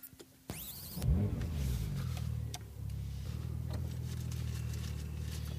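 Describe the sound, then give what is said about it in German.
A Porsche Turbo S sports car engine fires up with a sharp, rising rev, then settles into a steady, deep rumble as the car pulls away, with no talking. “Äh, ich habe mir den hier Porsche Turbo S2, den hier, das ist ein richtiger Tier, ne?”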